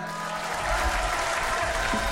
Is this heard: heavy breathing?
no